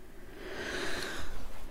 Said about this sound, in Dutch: mijn hond, alleen onze hond, ligt goed te snurken naast mij in zetel.